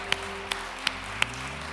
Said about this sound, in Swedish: Och innan vi sätter oss ner, ja, vi kan gott ge Herren en applåd för det han är.